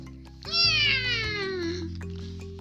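A cat lets out a single long, drawn-out meow that starts high and slides downward in pitch, loud, over a low steady hum in the background.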